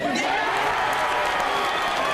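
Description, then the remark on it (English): A crowd cheering and applauding sound effect, played to celebrate the career of a singer: a dense, steady wash of many voices and claps that stays loud and even throughout, with no pauses. “No, I just realised the cheering sounds really inappropriate.”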